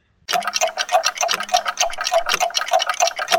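A clock ticks in a steady, rapid rhythm, each tick crisp, with a faint low hum running underneath throughout.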